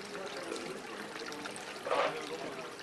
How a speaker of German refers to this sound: Dies ist der Brunnenplatz. Hier gibt es auch im heißesten Sommer immer genug frisches Wasser für alle.